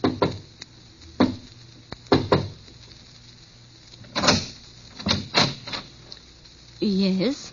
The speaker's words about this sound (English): Somewhere in Europe, a man is walking through the darkness down a cobblestone street. It's early evening still, only a little past eight, but the street is strangely deserted. He pauses, looks behind him, then knocks quietly on a door.